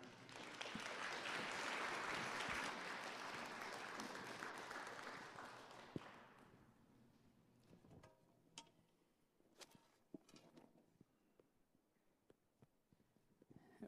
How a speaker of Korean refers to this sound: 목사님 나오실 때 큰 박수로 환영해 주시기 바랍니다.